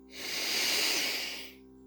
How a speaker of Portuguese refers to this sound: E enquanto você inspira profundamente, você pode expirar e aquela boca que estava aberta faz até um som. O ar entra com intensidade.